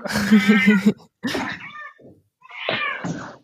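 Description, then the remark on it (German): A cat meows, three separate calls with short pauses between: a drawn-out yowl first, then two shorter, strained mews. No talking. “Das ist eine Katze.”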